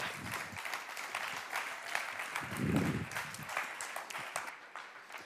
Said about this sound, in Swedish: En applåd till barnen också. Grymt!